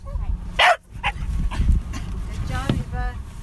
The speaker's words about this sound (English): That's the sound of Eba the whale dog.